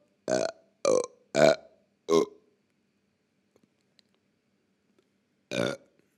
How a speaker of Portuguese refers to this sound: Desculpem pessoas sensíveis, mas mesmo essas pessoas sensíveis arrotam e sabem o que é um arroto.